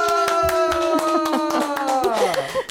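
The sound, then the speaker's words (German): Hands clap in a quick, irregular, steady patter of applause for a person who put their cup in the dishwasher unprompted, under a loud sustained tonal sound that slides gradually downward in pitch toward the end. “Dafür einen großen Applaus einfach in der”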